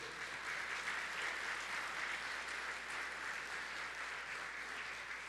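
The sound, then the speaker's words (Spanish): An audience applauds steadily for several seconds, a dense, even wash of many hands clapping at a constant loudness with no voices rising above it. “Si lo cree, dar un aplauso fuerte.”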